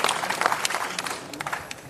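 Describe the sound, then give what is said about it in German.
An audience applauds to thank author Christoph Biermann at the blue sofa (Blaues Sofa) event, a dense, steady wash of many hands clapping with scattered brighter claps standing out, moderately loud and continuous throughout. “Vielleicht mit einem Danke. Applaus.”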